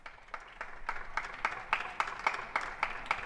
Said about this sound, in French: Il est 20h, 20h pile, vous entendez derrière ma voix les applaudissements des voisins, de ceux que nous connaissons et de ceux que nous ne connaissons pas.